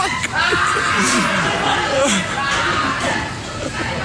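A busy McDonald's restaurant full of overlapping chatter and commotion, with electronic beeps and the clatter of plastic cups dropping onto the floor amid the steady, loud crowd noise.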